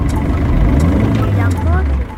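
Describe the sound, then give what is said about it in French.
A tractor engine drones steadily, a loud, low rumble with shifting harmonics throughout, while indistinct voices murmur faintly in the background. “Encore un tracteur Oh non, on va jamais y arriver”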